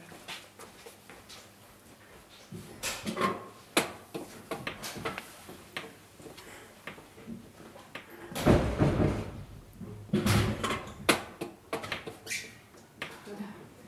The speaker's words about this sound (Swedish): Jag ska stänga ytterdörren.